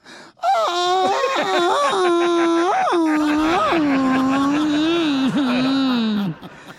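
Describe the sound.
A loud, drawn-out Mexican grito from a woman from Guasave, Sinaloa: one sustained yelling voice lasting about six seconds, rising to sharp whooping peaks and wavering before trailing off and dropping in pitch at the end.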